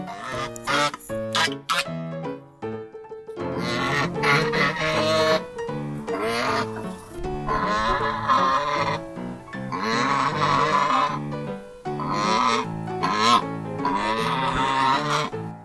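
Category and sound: bird, goose honking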